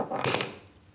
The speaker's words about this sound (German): Was haben wir hier auf den Tisch fallen lassen? Das sind unsere Signierstifte. Weil wir voll berühmt sind und deshalb signieren wir Sachen.